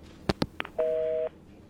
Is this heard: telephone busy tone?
yes